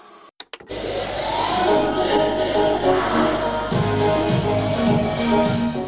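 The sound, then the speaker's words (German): A couple of sharp mechanical clicks, then a loud, steady whirring rush of videotapes of childhood recordings being fast-forwarded, with warbling, sped-up snippets of sound chattering through it for several seconds. “Ich spule mich durch unendlich viele Videoaufnahmen. Was ich da im Schnelldurchlauf sehe, sind die ersten Erinnerungen an meine Kindheit.”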